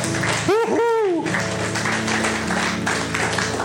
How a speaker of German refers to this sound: So, liebes Lobpreisteam, vielen Dank. Noch einen, noch einen Applaus, bitteschön, weil ich bin so voller.